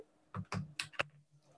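A computer keyboard that had a notebook resting on it is moved, with a few clattering key clicks, four short bursts over about a second, fairly quiet, with no one speaking.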